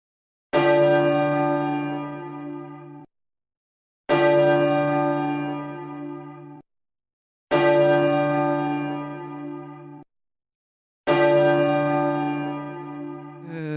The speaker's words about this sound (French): des cloches qui évoquent quelque chose pour vous, en tout cas. Donc, euh, qu'est-ce que ça, qu'est-ce que ça vous rappelle, ce son, cette sonorité eh Bien, euh, l'enfance mhm. et même l'adolescence